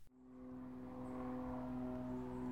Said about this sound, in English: There's the aeroplane again.